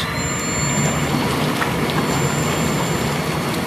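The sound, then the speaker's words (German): Steady, loud churning of bubbling water with a low motor rumble underneath as the bubble jets of a whirlpool tub are switched on, continuous throughout with no voices. “Ich mache jetzt mal nur zum Beweis so die Blubberbläschen an”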